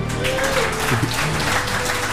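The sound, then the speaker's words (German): Steady audience applause given as a clap vote for the first of two celebrities: a dense wash of many hands clapping at an even loudness throughout, with faint voices murmuring underneath. “Also, oh, klatschen zuerst”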